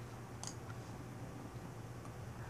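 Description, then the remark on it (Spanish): A quick pair of crisp mouse clicks close together, a double click to open a connection in an SFTP program, followed later by one fainter click, all over a low steady hum with no talking. “Bueno, Empezamos, le damos doble clic o abrimos la conexión con nuestro programa, como sea.”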